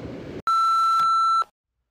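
A WhatsApp message notification tone rings out: one clear electronic beep held for about a second, following a short burst of hiss, then silence.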